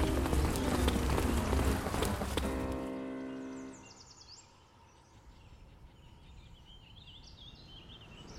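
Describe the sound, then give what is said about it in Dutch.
Quick, hurried footsteps of city passersby patter amid a loud, busy street bustle with loud voices that drops away after a few seconds, leaving birds chirping faintly in the background. “Ondanks de luide stemmen en de racende voetstappen van de stadsgangers.”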